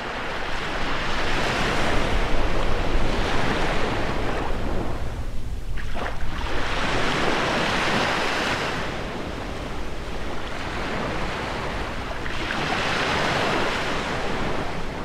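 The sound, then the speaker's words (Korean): Ocean surf rolls in continuous broad washes, swelling and easing in slow cycles with a brief lull midway, while wind rushes steadily underneath. Loud and close, with no voices. “동쾌한 파도와 바람 소리 들으셨는데요.”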